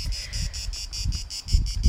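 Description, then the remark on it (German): Crickets chirp in a steady, regular pulse, a high trilling repeated about every quarter second, with low rumbling wind or handling noise underneath and no voices. “ich sag's positiv, eine reife Leistung, dass diese Grillen sich überhaupt nicht verspielen.”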